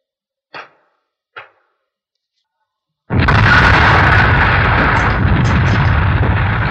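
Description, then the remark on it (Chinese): Two short, sharp pops, then after a pause a stone landmine (crushed-stone mine) explosion bursts out loud and keeps roaring as a dense, rumbling wash of fist-sized rocks raining down on the enemy until the end. “随着这一声巨响，拳头大的石块铺天盖地的向敌人砸下去，敌人就像开水浇了蚂蚁窝。”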